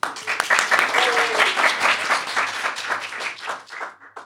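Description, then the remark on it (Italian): A live audience applauds steadily for about four seconds before a show begins, a dense wash of many overlapping claps that stays loud before thinning out and fading at the end. “Quindi, prima di iniziare, vorrei fare un applauso a voi che siete venuti e che pazientemente ci ascoltate per un'ora.”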